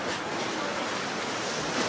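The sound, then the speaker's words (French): A steady, continuous rush of flowing water fills the whole clip, a dense even hiss with no breaks: an underground river flowing inside a cave. “Avec le de la rivière qui coule.”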